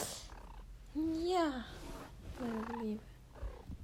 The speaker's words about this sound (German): Das war meine Katze. Vielleicht hört ihr sie.